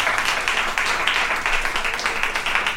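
Steady audience applause at an event in Washington, DC, thanking the host and his entire team: a dense, crackling wash of many hands clapping at once, holding at an even loudness for a few seconds with no voices rising above it.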